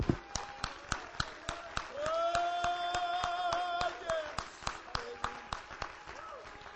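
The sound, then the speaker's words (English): An audience claps hands together in a steady, brisk rhythm, sharp claps landing about three times a second, while a sustained vocal tone rises over the clapping midway through. “Come on, clap your hands with me and let's.”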